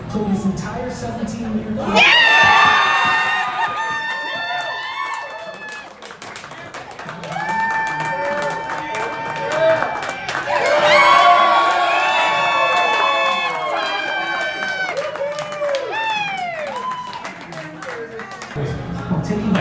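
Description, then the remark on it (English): A crowd erupts in loud cheering and shouting as an announcement is made, with high whoops and yells rising in two big surges over scattered clapping, then tapering off toward the end. “When the announcement was made, there were plenty of cheers and even a few tears.”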